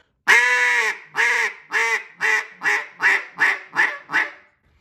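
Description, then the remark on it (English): A duck call blows a hen mallard quack sequence, nine raspy notes: a long, loud first note, then shorter quacks in a steady, slightly quickening cadence that taper off. No one talks. “That right there is just a basic a note that I'm watching those ducks to get a response.”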